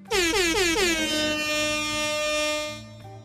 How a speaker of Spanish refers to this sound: Tírate un bocinazo.